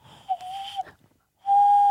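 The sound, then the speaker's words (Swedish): Two hollow, breathy hoots blown through the small gap between the thumbs of cupped hands, imitating a dove: a steady mid-pitched tone, a short pause, then a second louder one, with no talking. “Och så blåser man där på något jävla vänster. Mm. Då ska det mm. låta som en liten... Duva.”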